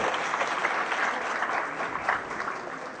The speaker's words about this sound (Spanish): Un aplauso fuerte para él.